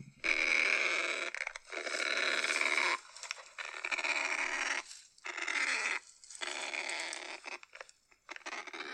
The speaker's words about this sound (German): das hört sich eher an, wie du gestern Nacht geschnarcht hast. Das ist aber scheinbar ein äh, Kakapo. Kakapo.